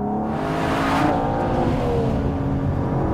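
A powerful 725-horsepower V12 sports car engine in Sport Plus mode revs and accelerates hard. Its revised exhaust, louder than the DB11's, gives a loud, throaty roar that runs continuously with rising harmonic pitch. No voices are present.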